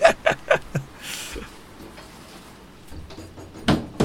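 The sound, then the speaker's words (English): A window being closed during heavy rain: a quick run of sharp knocks and rattles, a brief sliding whoosh, then quiet before one last solid thud as it shuts. “Yeah, I'm going to just close my window.”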